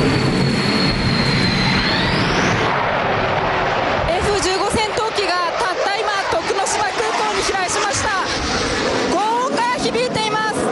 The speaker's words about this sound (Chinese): 战斗机高速飞过，精准帅气着陆，国际局势不稳，日本航空自卫队加紧训练。只不过这场地竟是选在民用机场。